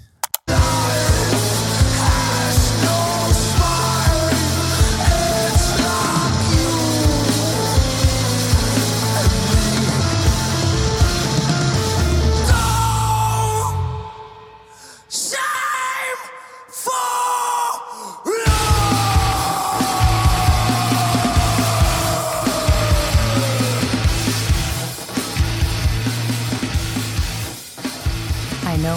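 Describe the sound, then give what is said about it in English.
Loud, dark heavy metal by a new young Belgian band, with dense distorted guitars, pounding low end and harsh yelled vocals; midway it breaks into a few abrupt stop-start hits before crashing back in at full force. “We're very proud of our music scene. It is loud, intense, and Dark.”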